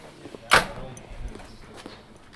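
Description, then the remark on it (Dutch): A sharp metallic clack of a key turning in the door lock of a house in Alkmaar, Netherlands, followed by a few faint small clicks and rattles against a quiet background. “En ik word verwacht, ik hoor de sleutel al in het slot.”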